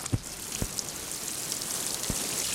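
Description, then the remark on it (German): A freshly planted zucchini seedling is watered in a garden: a steady, hissing patter of water pouring onto soil, broken by a few soft low thuds, with no one speaking. “So, jetzt soll ich es noch gießen.”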